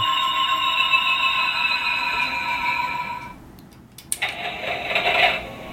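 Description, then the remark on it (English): Electronic sound effects from a robot figure toy as its button is pushed: a steady, bright synthesized tone holds for about three seconds, cuts off, then a burst of buzzy, warbling electronic noise follows, fairly loud, with no talking. “Okay, well, not talk. going to push the button again.”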